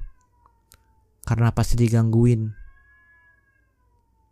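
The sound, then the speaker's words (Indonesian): A cat fighting with another cat in front of a house lets out a loud, drawn-out yowl lasting just over a second, harsh and wavering, then the sound breaks off into near quiet. “Ini kenapa ada kucing yang lagi kelahi di depan rumah gua ya?”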